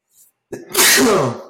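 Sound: sneeze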